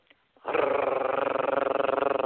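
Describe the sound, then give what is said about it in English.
A voice imitates three huge grey military helicopters flying overhead in Toronto, with a loud, steady, rapidly pulsing rumble that chops rhythmically for about two seconds after a brief faint breath. “And then these three huge grey helicopters, the colour of war, came right over my head”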